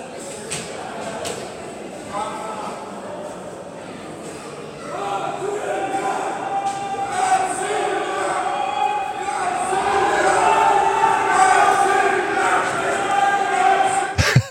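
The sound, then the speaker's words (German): A street crowd celebrating a Russian football win: a dense roar of many voices that swells into loud, sustained chanting and shouting after a few seconds, with a couple of sharp bangs at the end. “Wir wissen zwar nicht, wie Russland gespielt hat, aber es hört sich so an, als hätten sie gewonnen.”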